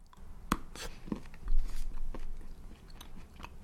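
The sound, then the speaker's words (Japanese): A sharp snap of a large chocolate bar breaking, followed by a second crisp crack and soft crunchy biting and chewing sounds, with no talking. The bars are Hokkaido luxury milk chocolate with salt and white chocolate with salt. “ね、かなり大きいですね、ね、立派なサイズで、ちょっとじゃあパキッと割っていただきたいと思います。”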